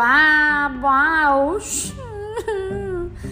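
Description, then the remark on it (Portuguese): A person mimics a girl's crying: loud, wavering whimpering wails that rise and fall in pitch, broken by a brief breathy gasp midway, then a sobbing moan. “Mas não era um choro comum do tipo”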